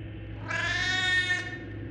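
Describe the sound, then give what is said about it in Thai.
A single long, drawn-out meow from the cat Baseball, crying again with a plaintive, mournful tone, lasting about a second, over a low, steady background hum. “เจ้าเบสบอลร้องออกมาอีกครั้งด้วยโทนเสียงที่ดูเศร้าๆ”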